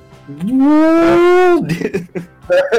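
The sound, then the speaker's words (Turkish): A man's voice imitates a street boza vendor's call: one long, low, muffled note held for about a second, almost like a cow's moo, followed by brief chatter. “Bozacılar böyle Bozacılar boğuk boğuk yapıyor.”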